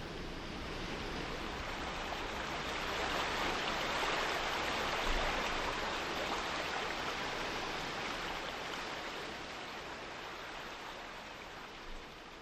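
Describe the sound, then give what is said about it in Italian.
Steady rushing water of a stream fills the whole stretch with a dense, even hiss that swells slightly in the middle. No voices are heard. “I rami più piccoli degli alberi si muovevano al soffio del vento notturno e le foglie stormivano come uccelli a far da coro al rumore dell'acqua.”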